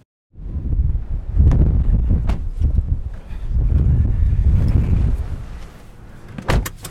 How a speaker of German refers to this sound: Oh, boah, oh das ist windig. Ja. Und manchmal haben wir diesen Wind für drei, vier, fünf Tage ununterbrochen.